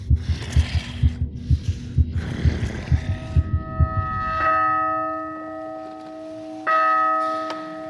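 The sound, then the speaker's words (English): A loud, rapid heartbeat thumps about a dozen times, then gives way to two ringing strikes of a church bell that hum and linger. “I spin around, heart pounding, staring deep into the tangle of branches.”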